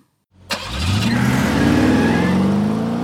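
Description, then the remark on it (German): A car engine turns over and catches, then revs up and keeps running steadily and loudly, its rising drone filling the rest of the moment with no voices. “Und wir sind auch wieder mal zurück im Auto”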